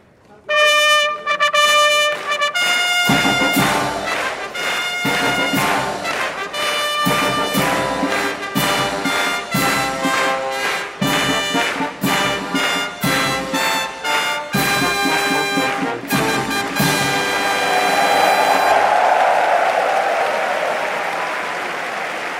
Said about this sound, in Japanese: 陸上自衛隊東部方面音楽隊の皆さんの G1 ファンファーレが中山競馬場に詰めかけました2万7600人のお客様の歓声拍手とともに空に吸い込まれていきました